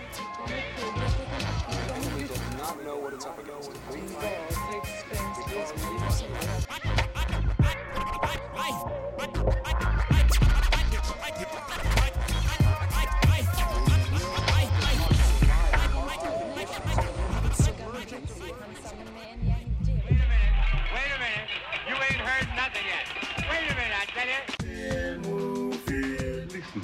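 A hip-hop track plays loudly and continuously, with rapped vocals over a thumping beat, bright turntable-style scratches and a brief drop in energy near the end before the beat returns.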